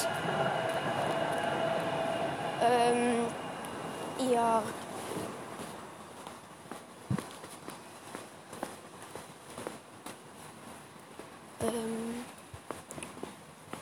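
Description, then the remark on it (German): A suspended monorail train, the Schwebebahn, rumbles past in the background with metallic squeals and clanks, a fairly steady mechanical noise, with faint footsteps. “hört es vielleicht gerade schon im Hintergrund, das ist die Schwebebahn.”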